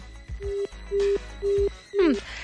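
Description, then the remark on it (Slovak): A listener's call-in phone line to a radio station cuts out from a technical problem: three evenly spaced, steady electronic beeps of the disconnect tone, then a fourth beep that slides downward, heard fairly clearly over faint background noise. “Škoda, medzi tým nám poslucháč nevydržal na telefónnej linke, stal sa nejaký technický problém”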